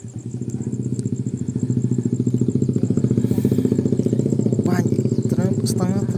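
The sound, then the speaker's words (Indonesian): A motorcycle engine idles, a steady, rapid low putter that holds an even rhythm throughout, with a few faint higher chirps near the end. The motorcycle's fuel tank seeps petrol, its chain is too small, its swingarm needs replacing, and it has a newly bought battery. “tangki motornya ngerembes bensinnya terus uh, rantainya kurang besar swing armnya minta diganti Kema kemarin juga baru aku beliin aki karena sebelumnya nggak ada akinya nih motor ini”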